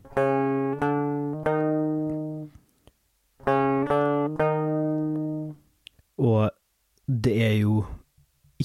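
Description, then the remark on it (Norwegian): A plucked saz baglama plays a sustained note, then a second note a semitone away, the smallest interval used in Western music, each re-struck a few times and ringing clearly, followed by a brief spoken voice. “Og så har vi da en halvtone, som er det minste vi bruker i Vesten.”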